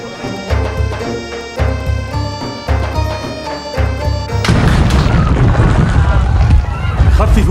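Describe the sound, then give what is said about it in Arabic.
Heavy stones from Saladin's catapults thud against the fortress in a steady rhythm over festive music at a party inside, then a loud impact gives way to a long, rumbling crash of falling debris. “يأبى صلاح الدين إلا أن يشاركنا الحفلة بطريقته تابعوا الحفلة لن نترك لمداعبات صلاح الدين أن تفسد علينا حفلنا ولنعتبر مجانيقه جزءا من الإيقاع ليس أكثر أنتم آمنون في الحصن”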